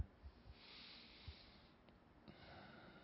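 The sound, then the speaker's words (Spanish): A slow, deep breath drawn in during a guided relaxation meditation, a brief pause, then a long airy breath let out, quiet with no talking. “y tomando una respiración profunda”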